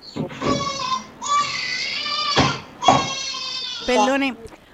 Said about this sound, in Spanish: Ahí hay, hay un ruido como para que está interviniendo, no sé de cuál de las pantallas, pero es como un niñito llorando y no me permite escuchar.